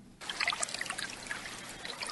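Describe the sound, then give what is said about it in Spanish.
Light swimming pool water splashing and trickling, starting abruptly and continuing steadily with small bright droplet sounds scattered throughout at a moderate level. “en este veranito que suena así a sonido de piscina, a sonido de buena música, a sonido de en su casa.”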